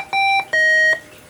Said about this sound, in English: the beeping sound you're probably going to hear in a second